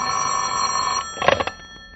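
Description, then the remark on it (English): A telephone at a detective bureau office rings with a long-distance call, in one steady, bright, sustained burst for about a second, then cuts off, followed by a few quick clattery knocks that fade into quiet. “I have a long distance call for Mr. Jeffrey Regan from Mr.”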